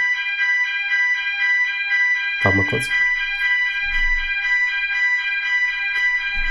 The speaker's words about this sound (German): Äh, hier ist gerade ein Feueralarm und ich weiß nicht, ob das das Hotel ist oder ein Auto draußen. Sekunde. Hörst du das? Warte ja, mal kurz. Ah, ist ein Auto.